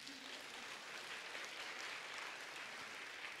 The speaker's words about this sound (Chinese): 好，我们给这位弟兄鼓掌一下，好吗？